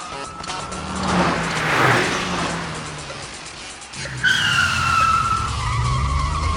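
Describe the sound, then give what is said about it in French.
The engine of a stolen Volvo van roars as tires screech and skid hard in a car chase through the streets of the Vatican, with a loud squeal building early and another sharp skid surging at the end. “Entrons dans les feux de l'action et retrouvons les membres du Commando S dans une voiture volée, en pleine course-poursuite dans les rues du Vatican.”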